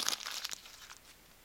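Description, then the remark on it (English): A piece of paper is crumpled quickly, a dense burst of crisp crinkling and crackling lasting about half a second before fading into quiet. “if this piece of paper was Satan, Jesus could be like,”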